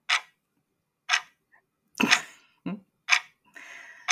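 Clock ticking sound effect, with sharp, fairly loud tick-tock clicks at an uneven pace, about six in four seconds, and a brief hiss near the end. No one talks.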